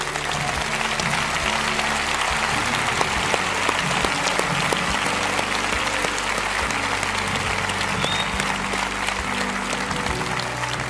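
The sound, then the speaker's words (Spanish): A large audience at a sermon applauds steadily for about eleven seconds for those standing up to ask for a personal relationship with Jesus Christ, a dense, loud wash of clapping without letting up, with no talking over it. “Deles el mejor aplauso que usted pueda.”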